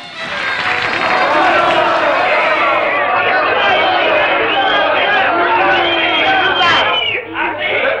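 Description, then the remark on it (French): A large audience erupts in loud, sustained applause for performers on a slippery parquet floor, mixed with cheering and excited voices, a dense wall of crowd noise that holds steady for several seconds before dipping briefly near the end. “Et on peut les applaudir très très fort. Et encore plus fort.”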